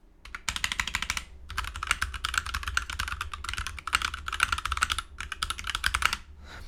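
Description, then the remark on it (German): Rapid, continuous typing on a keyboard resting directly on a table instead of a mouse pad, the table's resonance amplifying the sound, with dense clacking keystrokes and a hollow low thump beneath them, in bursts separated by brief pauses. No one speaks. “Also man hört, dass dieser Tisch halt die Frequenz nochmal ein bisschen verstärkt.”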